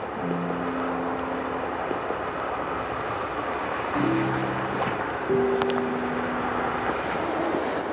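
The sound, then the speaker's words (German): A heavy truck engine drones steadily, with low humming tones shifting in pitch over a constant rough, rushing noise, as the truck drives at 30 km/h for several hundred kilometres over the thick frozen ice of the Tompo River. “Mehrere hundert Kilometer fährt er über den Fluss, mit 30 Kilometern pro Stunde.”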